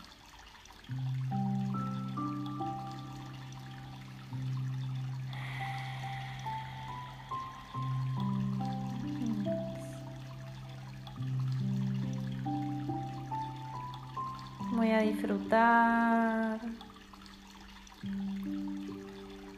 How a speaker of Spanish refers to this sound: Voy a dejarme llevar por el sonido de este río que me invita a fluir, que me invita a soltar toda expectativa, a soltar los miedos, a soltar el control.